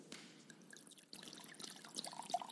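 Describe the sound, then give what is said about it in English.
Liquid is poured into a cup, filling it, in a soft, steady trickle for a couple of seconds, fairly quiet, swelling slightly near the end with no voices present. “And in the same way, after supper, he took the cup and filling it,”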